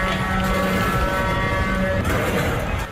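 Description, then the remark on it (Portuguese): Heavy diesel tractor engines rumble and drone steadily throughout, a loud, continuous mechanical hum with a sustained whine layered on top, as several tractors idle while blocking traffic on the street where most European institutions are. “Na Rua de onde ficam a maioria das instituições europeias, os tratores bloquearam a circulação.”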